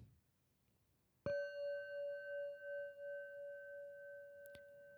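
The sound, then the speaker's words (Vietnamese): A single meditation bell is struck clearly during a yoga nidra practice, its bright tone ringing on with a slow, wavering shimmer as it fades. A faint tap sounds near the end. “và trong suốt quá trình này sẽ có những lúc mình sẽ chìm sâu vào giấc ngủ và mình vượt qua cái lằn ranh của ý thức khi nào mà mình nghe tiếng chuông”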